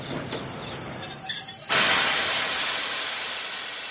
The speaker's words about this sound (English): After three days, the train stops.